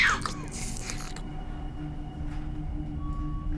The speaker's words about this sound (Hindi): झटके से उसने हाथ में जा रही खून की ट्यूब खींची और मुंह में लेकर सुड़क सुड़क पीने लगी